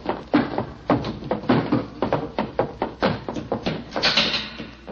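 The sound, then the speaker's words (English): A heavy theater exit door rattles and bangs as it is opened and shut, with a run of sharp knocks and thuds, and a brief hiss of air near the end. “I should have remembered that theater exit doors always open from the inside.”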